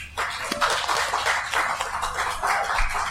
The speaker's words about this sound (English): our small but enthusiastic audience, let's hear it for our guests.